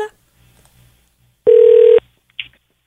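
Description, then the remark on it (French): A single loud, steady ringback tone of a phone line ringing as a call is placed, lasting about half a second at a constant mid pitch, followed by a brief soft click, with a faint low hum beforehand. “Alors, on appelle.”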